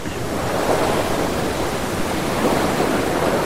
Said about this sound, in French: Les vagues grondaient autour de nous en se précipitant sur notre avant, comme si elles avaient tenté de nous barrer le passage.